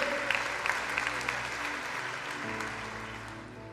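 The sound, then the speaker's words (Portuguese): An audience at an evening church service applauds God, the Holy One, steadily for several seconds: a dense wash of many hands clapping at a constant, fairly loud level, with low sustained tones sounding underneath. “Aplauda aquele que é santo e seja marcado nessa noite.”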